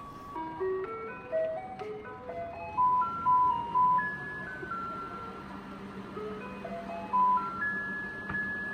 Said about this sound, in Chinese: 我们刚才听到的就是台北市民，然后去在街道会听到这样的像卖冰激凌音乐的这样的声音的一辆车会开到你周围，然后所有的人都会提着自己家里中的垃圾到街道旁边等着他来回收。